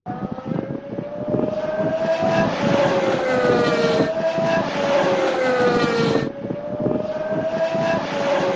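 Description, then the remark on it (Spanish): A Mercedes Formula 1 engine, recorded in Bahrain ahead of the 2021 season, screams at high revs, its whining pitch climbing steadily and then dropping sharply with each of several quick gear shifts, loud and continuous with no talking. “Bueno, pues es Mercedes. Eh, sonido allí directamente traído de Bahrein.”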